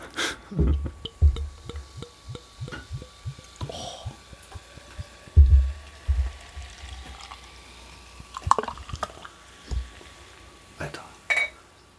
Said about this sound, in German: du möchtest gerade, dass das Bier vor Mikro eingegossen wird